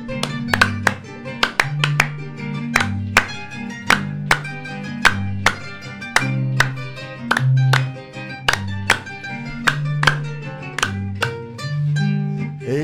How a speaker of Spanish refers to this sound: A ver palmas.